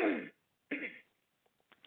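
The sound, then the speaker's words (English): Two forceful coughs in quick succession, the first slightly longer, followed by quiet breathy rustles. Fairly loud, with no talking. “just coughed.”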